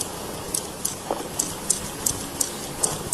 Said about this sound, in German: dieser Krach, der nebenher läuft, ist das Eis, wie es, wie es abbricht und wie, wie Eisschollen zusammenstoßen.